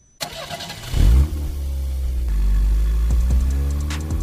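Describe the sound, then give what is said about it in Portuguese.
A car engine cranks and catches with a loud burst, then settles into a steady rumbling idle with a couple of brief revs near the end, with no voices. “O que tem nessa fumaça que sai das chaminés das fábricas e do escapamento dos automóveis?”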